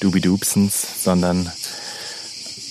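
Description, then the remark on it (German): A steady, shrill drone of cicadas in the mountains of Catalonia fills the background throughout, with a man talking over it at first before the insect buzz continues on its own. “Und noch viel mehr hört ihr gerade hier aus den Bergen Kataloniens, die Zirkade.”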